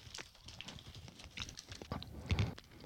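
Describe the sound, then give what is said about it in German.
Crunching of someone chewing candied roasted hazelnuts, a steady series of sharp, crackly bites and grinding, fairly quiet, with no talking. “Schmeckt sehr nach Haselnuss. Habe ich noch nie gegessen. Gebrannte Haselnüsse, nee.”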